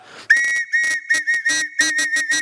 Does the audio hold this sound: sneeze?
no